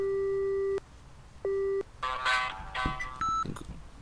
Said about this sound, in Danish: Nå. Den går. Jeg, jeg prøver lige at ringe en gang til ham så. Jeg finder telefonen.